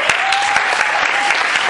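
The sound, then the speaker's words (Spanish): An audience breaks into steady applause for Mr. Jaime Montoya, who has just arrived: a dense wash of many hands clapping with a few sharper individual claps standing out, loud and continuous throughout. “Un aplauso para el señor Jaime Montoya que acaba de llegar.”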